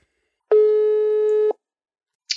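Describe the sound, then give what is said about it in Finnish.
A single steady telephone ringback tone sounds for about a second, loud, as a phone call is placed, then cuts off into silence before a brief click at the end. “soitetaan tästä Elisalle ja kysytään hänen mielipidettään asiaan”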